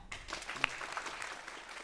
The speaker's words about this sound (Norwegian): Så da vil jeg at vi skal gi en varm applaus til innlederne våre.